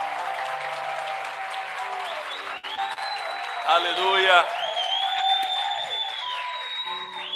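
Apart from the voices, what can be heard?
audience applause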